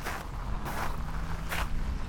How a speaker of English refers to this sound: The crunch of small stones under her feet sounded how her brain felt.